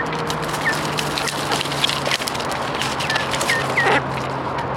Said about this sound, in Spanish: podréis ver una foto de un montón de gallinas que han venido a saludaros. Saludad a la gente.